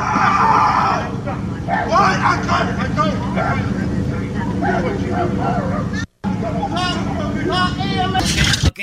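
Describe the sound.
In a played video clip, a man who owns a dog screams in sharp, strained bursts over a constant rumble of engine and traffic noise, with other voices mixed in; the sound is loud and harsh and briefly drops out near the end.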